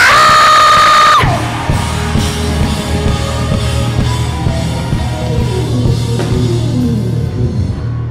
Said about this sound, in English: I need y'all to scream in here. One, two, three, scream! One more time over here. One, two, three, scream!